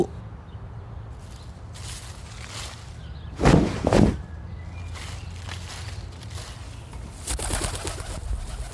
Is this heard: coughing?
no